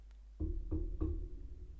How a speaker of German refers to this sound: Ich würde jetzt gerne auf Holz klopfen, aber dann wird es hier sehr laut. Ich mache es trotzdem